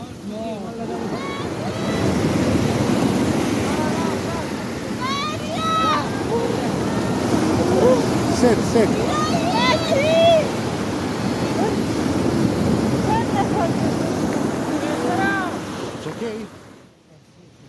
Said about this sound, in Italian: È buio, tira un vento forte, fa freddo. Il mare è grosso, ci sono onde alte più di due metri. Siamo sulla spiaggia di Steccato di Cutro, una lunghissima striscia di sabbia a 20 km da Crotone, in Calabria.